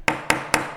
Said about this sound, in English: This is the sound of a gavel.